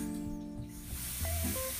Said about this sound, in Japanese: ちょっとお水の音うるさいんですけどえそれ小さくしてくれてるの多分小さくしてない気がするな